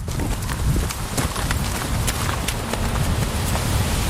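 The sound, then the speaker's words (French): Horse hooves clop in an uneven, steady rhythm on a hard surface at a stable yard housing about 60 competition and breeding horses, over a constant low rumble of wind on a slightly windy day. No one speaks. “Parce que 60 chevaux ici aux écuries”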